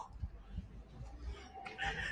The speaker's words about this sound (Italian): Eh, boh, non so come chiamarlo, una specie di giardino, parcheggio, pieno di uccellini, c'è un po' qualche macchina che disturba ogni tanto